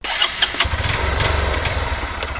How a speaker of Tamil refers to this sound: காலைல ஒரு நாள் அஞ்சு மணி போல் இருக்குது நீங்கள் பாட்டுக்கு உங்கள் பைக் சாவி எடுத்துகிட்டு பைக் ஸ்டார்ட் பண்ணுறீங்க